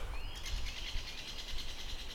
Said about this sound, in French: Voilà, j'ai quitté Bonny-sur-Meuse et la Voie Verte pour grimper une petite colline boisée avec euh, un tapis de feuilles mortes et des belles touches vertes de mousse. Et c'est super parce qu'il pleut plus et les oiseaux s'en donnent à cœur joie.